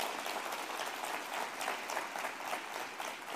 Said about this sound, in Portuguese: Aleluia, aplauda Jesus.